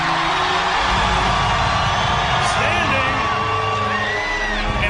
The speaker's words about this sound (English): Standing in a WCW ring. They were cheering for Shane McMahon, but at the same time, they were in awe of, of what was happening.